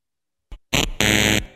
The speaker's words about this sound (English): I'm sorry, oh, lads. That's no. all three buzzers, all three lifelines gone.